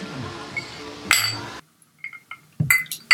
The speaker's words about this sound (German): Man hört schon am Klappern. Wir trinken was mit großem Eiswürfel. Ja. Yeah. Haben uns wieder in unserer Hausbar eingefunden ähm, und äh, trinken heute einen echten Klassiker, Old Fashioned.